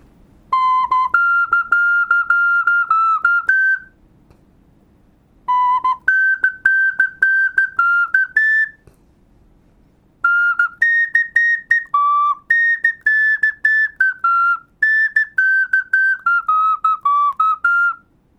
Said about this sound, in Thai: ตอนเมื่อกี้นี้ผมตบไม่ได้เพราะผมเป่าขุยอยู่นะครับเด็กๆก็ตบมือกัน